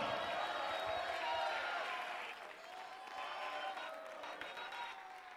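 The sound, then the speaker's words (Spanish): An audience in a church cheers and claps in praise to God, hands raised, a dense, steady roar of applause and shouting voices that swells and holds for several seconds. “Alguien puede levantar las manos y hacer ruido en la casa de Dios por 30 segundos.”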